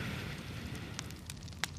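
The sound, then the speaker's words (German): A campfire crackles steadily over a low rumbling bed, with a few sharper pops and snaps breaking through, one standing out near the end. No one speaks. “Ja, etwas irritiert, verdutzt sitzt du noch ein wenig am Lagerfeuer, bevor du dann auch beschließt, das Lagerfeuer auszumachen oder ein bisschen brennen zu lassen, damit es noch ein bisschen wärmer ist und dich schlafen zu legen.”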